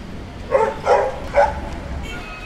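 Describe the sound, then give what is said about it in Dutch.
Three short dog barks ring out in quick succession as four dogs walk past an outdoor terrace on a street, over a steady outdoor street hum, followed by quieter ambient noise. “Nu komen er net weer vier honden langs gelopen.”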